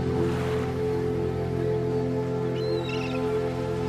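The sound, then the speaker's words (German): A couple of seagull cries ring out near the end, fairly faint, from gulls soaring high in the clear air over the sea, over a steady wash of sea and a low droning engine hum. “Um dich herum hörst du das freie, unbeschwerte Kreischen der Möwen, die hoch in der klaren Luft schweben.”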